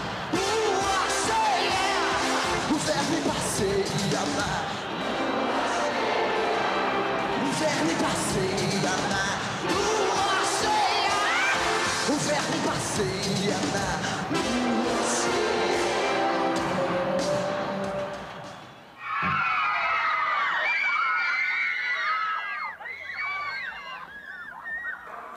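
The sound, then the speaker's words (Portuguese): A huge crowd of nearly 40,000 people roars continuously at the municipal stadium of Ipatinga in Minas Gerais, Brazil, awaiting a rock show, a dense wall of cheering. It briefly cuts out, then high-pitched shrieks and screams from many fans rise over the din. “Como hoje, no interior de Minas, no estádio municipal de Ipatinga, onde quase 40 mil pessoas esperam o momento da festa.”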